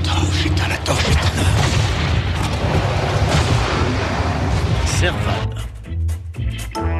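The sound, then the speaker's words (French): A heavy explosion with a deep, roaring rumble that stays loud for several seconds, then breaks into a few rough bursts and thuds as it starts to subside. “Vous avez entendu une explosion.”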